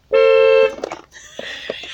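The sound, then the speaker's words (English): A single loud, steady car horn blast lasting about half a second, with a bright harmonic tone, pressed by a 14-month-old child, followed by quieter background voices and clatter. “I was 14 month old pressing the car horn.”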